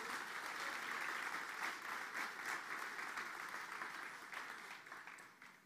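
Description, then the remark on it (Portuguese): An audience applauds the Lord together, a dense, steady wash of many hands clapping that stays loud throughout and tapers slightly toward the end, with no one speaking over it. “Você pode aplaudir ao Senhor.”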